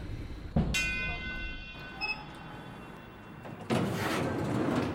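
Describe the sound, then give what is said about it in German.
Train station ambience at Anhalter Bahnhof: a high metallic squeal rings out, a brief chime sounds, then a loud, rushing roar of a passing train fills the space, with faint voices in the background. “Anhalter Bahnhof. Ein paar Wochen sind vergangen. Tommy wartet hier wieder auf Helle.”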